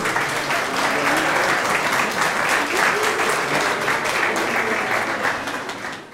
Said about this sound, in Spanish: Pasen por aquí, no hay sus papis, por favor, y denles un aplauso.